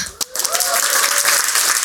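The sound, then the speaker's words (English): An audience at an event breaks into applause for AIGA New York, a dense wash of many hands clapping that swells quickly and holds steady and loud, with a faint whoop or cheer rising briefly above it. “Big round of applause for AIGA New York.”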